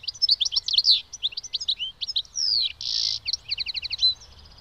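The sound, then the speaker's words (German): A small songbird, a goldfinch, sings a rapid, varied stream of bright twittering chirps and buzzy trills, clear with no voices, only a faint low rumble underneath. “in den Städten Käfige mit Locktieren aufgehängt werden, um Stieglitze oder andere Kleinvögel zu fangen”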